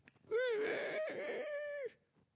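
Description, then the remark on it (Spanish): A single drawn-out crowing call, like a person mimicking a rooster's cock-a-doodle-doo, loud, rising then holding a strained, nasal tone for over a second before cutting off. “Me acuerdo que cantaba como un gallo.”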